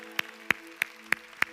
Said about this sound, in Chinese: Come on，给上帝一个欢呼，好不好？哈利路亚